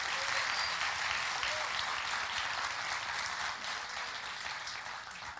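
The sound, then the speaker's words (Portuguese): A crowd applauds steadily, a dense wash of many hands clapping at an even, sustained level that tapers slightly toward the end, with no voices standing out, as Jonas Madureira is called up to the stage. “Ah, é, Jonas Madureira, sobe aqui, uma salva de palmas para Jonas Madureira.”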